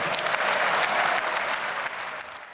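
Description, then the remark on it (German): Sustained applause for Scholz from a large assembly in parliament, a dense, even wash of many hands clapping that holds steady and then begins to thin slightly toward the end. No voices stand out. “Ja, Scholz äh, kassiert viel Applaus, klingt auch erstmal nach einer irren Summe.”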